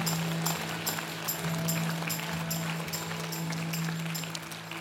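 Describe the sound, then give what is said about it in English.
A church audience claps together in a steady, continuous wash of applause for the Lord, with some sharper claps standing out over a low, constant hum. No one speaks. “Let's just give the Lord a hand clap in faith right now, church.”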